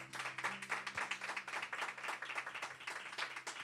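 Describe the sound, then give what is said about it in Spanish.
An audience at New Season gives applause to the Lord during a sermon, many hands clapping at once in a dense, continuous patter with a few cheers mixed in, holding an even, lively level throughout. “Alguien le da un aplauso al Señor y lo cree.”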